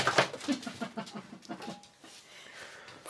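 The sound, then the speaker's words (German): A cat tumbles off a chair with a stack of newspapers: a sudden loud crash and paper rustle at the start, then softer scuffling and crinkling that fades over a few seconds. “Äh, sie ist gerade mit einem Stapel Zeitung vom Stuhl gefallen.”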